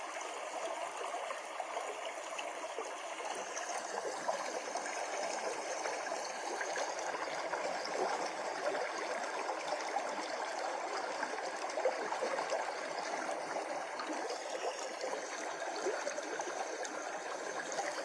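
Steady flowing stream water, a continuous bright babbling and trickling that stays even throughout, with no voices or other sounds.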